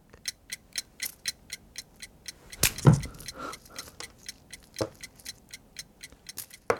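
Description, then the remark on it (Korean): Lee Gi-kwang's challenge timer ticks in a steady, even rhythm of sharp clicks, about two per second, with a louder rustling clatter and a few thumps breaking in partway through. “이기광의 도전 타이머 시작.”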